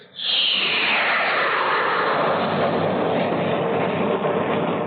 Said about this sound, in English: That's the kind of roar a guided missile makes as it builds up its tremendous driving force and zooms skyward, soon disappearing from view. For traveling at supersonic speed, a guided missile accelerates up to 3,500 miles per hour.